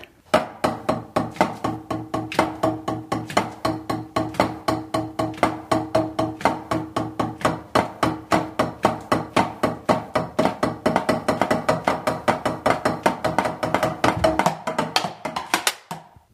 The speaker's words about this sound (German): Das Blöde ist, ihr könnt es jetzt nicht richtig hören, weil ich halt ein E-Drum-Set habe, was über Kopfhörer funktioniert. Ähm, ja, äh, so klingt das dann von außen, wenn ich drauf rumtrommel.